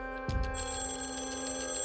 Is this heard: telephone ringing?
yes